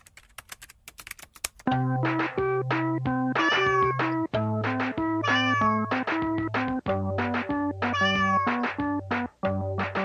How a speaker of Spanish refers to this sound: Este es el video del gatito que toca el piano que te quería mostrar el otro día.